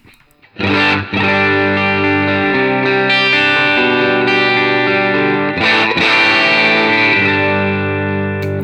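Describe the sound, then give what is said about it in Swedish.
Distorted electric guitar plays sustained, thick chords through an amplifier, loud and steady with a gritty, crackling low end; brief pauses between chord changes, no voices present. “Den liksom krackelerar ihop i basen.”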